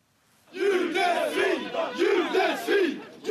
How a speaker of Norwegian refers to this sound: Lyden du hører nå, er fra ei hending i Stockholm. Høyreekstreme har omringa ei jødisk kvinne på gata og roper 'jødesvin' mot henne.